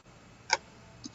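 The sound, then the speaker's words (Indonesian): A sharp mouse click as someone clicks 'view' in a reviewer account, followed about half a second later by a second, softer click. “Jadi ini sudah akun reviewer yang kita beri tugas tadi untuk me merespon uh, penugas tadi, kita bisa langsung klik view atau bisa juga lewat uh, notifikasi di akun eh, apa di icon ini nih.”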